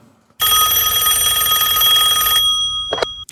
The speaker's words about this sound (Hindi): Amit records देख ही रहा था जब रिकॉर्ड्स रूम का धूल जमा हुआ फोन बज उठा